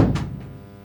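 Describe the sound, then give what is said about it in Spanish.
A door opens: a low wooden thump followed by a brief latch click and a fainter second click, then a soft fading resonance, with no voices. “Sí, porque no se debe de acordar ni cómo se abre la puerta, por favor.”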